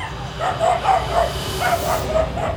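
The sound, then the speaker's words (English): A six-month-old male puppy barks in a quick, steady string of high-pitched yips, about eight in under three seconds, fairly loud over a faint background hiss. “the dog is adorable. He's a baby.”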